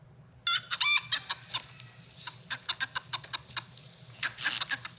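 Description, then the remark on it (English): A flock of 50 ISA Brown laying hens clucking busily, a dense stream of short, overlapping squawks and clucks with a few louder bursts, no one speaking. “You're listening to the sweet sound of 50 ISA Brown laying so, hens.”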